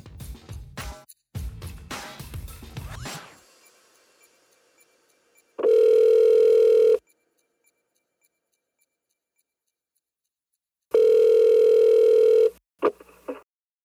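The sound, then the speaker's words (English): A phone handset clatters and is dialed for a call to an anonymous caller, followed by two long, steady ringing tones separated by several seconds of silence, ending with a faint click. “A huge thanks to Attuned to the Moon for making this phone call possible.”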